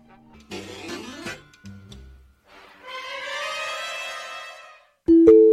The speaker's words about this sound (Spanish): Bueno, ahí se escuchó, ¿no? sí. Esas eran las campanas de la, la Q, que tienen una historia, que las, revivimos, porque se habían, se habían acabado las... Eh, se habían... Vaya, ya no existía un aparato.